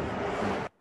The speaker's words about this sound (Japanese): マイクが一瞬いい時と悪い時はビューってある。あ、本当に。電波かのあ、電波でも悪くないな。あ、今良くなってる。